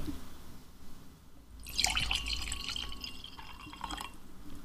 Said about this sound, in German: Hat man das gehört? Ein bisschen, ja. Ein bisschen. Ja, ich habe mir gerade ein Glas Wein eingeschenkt, und zwar Grauburgunder von 1112 oder 1112, wie man hier sagt.